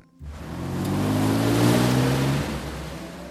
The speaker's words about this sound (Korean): 야, 대박. 자기네 집가는 버스 온다.